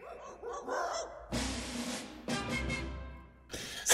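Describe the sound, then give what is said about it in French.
A small dog barks in short, sharp bursts over a recorded music track, three or four yaps spaced close together at the very end, following a brief whistled melody whistled by its master. “Et on entend ce petit chien aboyer tout à la fin lorsque son maître siffle.”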